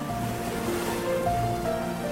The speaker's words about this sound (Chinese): 一道道的海浪像一首安眠曲，妮蒂闭上了眼睛，终于睡着。